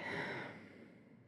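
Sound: a yawn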